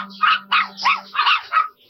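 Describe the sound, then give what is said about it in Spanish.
A quick series of about five high-pitched barks and yips from a dog and her five puppies running out, fairly loud, coming in rapid bursts with no one speaking. “El hombre sonrió y silbó la trastienda salió su perra corriendo seguida por cinco lindos perritos.”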